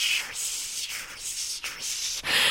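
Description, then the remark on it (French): A voice imitates meat grilling on a hot plate with simmering oil, making a series of breathy, crackly hisses, fairly loud, running almost continuously across several connected bursts. “Eh bien, imagine-toi que le son de la viande qui grille sur la plaque avec l'huile qui frémit”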